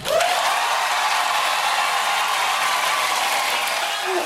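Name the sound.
studio audience applause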